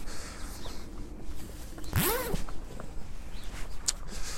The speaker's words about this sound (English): oh, should I think I'm going to take my jacket off actually.